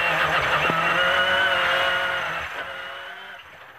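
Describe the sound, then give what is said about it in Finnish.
A rally car driven by Ikonen roars in a sustained, high-revving whine while its tires skid and squeal as it spins a donut, loud before fading slightly toward the end. “Oi, siinä muuta tulee Ikonen pyörittää Donitsia.”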